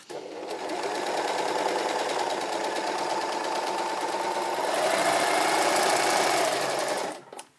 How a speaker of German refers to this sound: Aber ich mag deine Overlock-Nähmaschine sehr. Ah, die ist schön. Die ist schön. Ja, die gefällt ja. mir. Ich mag sie auch total gerne. Sie hat jetzt auch ja. neue Messer gekriegt, sodass sie dann auch mich weiterhin begleitet.